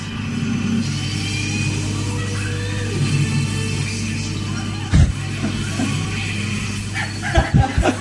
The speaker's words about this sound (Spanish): Acelerando el DeLorean nomás.